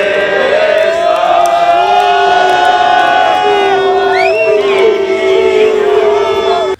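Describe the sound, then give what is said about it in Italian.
A large crowd whistles at the national anthem, loud and sustained, shrill tones sliding up and down above a dense, steady wall of voices for several seconds before cutting off abruptly. “E infatti poi adesso fanno una cosa che non si fa neanche più a Puntida il fischio all'inno nazionale.”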